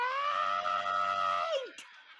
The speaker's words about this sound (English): they also said uh, … screaming,